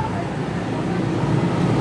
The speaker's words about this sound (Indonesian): eh ini kedengeran kan ya suara kita ya seharusnya sih kedengeran nih kenceng motor juga lebih kenceng